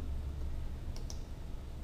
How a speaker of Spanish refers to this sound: Y ahora si yo quiero que al hacer, que al poner el ratón encima, solamente cambie el color, por ejemplo, del, del recuadro, lo que hago es, hago doble clic encima, ¿de acuerdo?